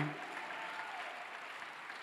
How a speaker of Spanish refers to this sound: Dale un aplauso al Señor Jesús. ¿Qué unción allá atrás? Apláudele bien fuerte.